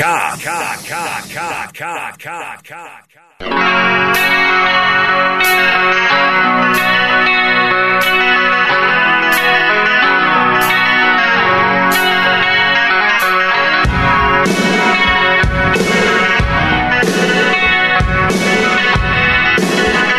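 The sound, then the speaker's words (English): A song plays loudly, opening with a few quick rhythmic pulses that fade, then a full band kicks in with a steady beat, dense sustained instruments, and a heavier, punchier low end near the end. “It's a great song.”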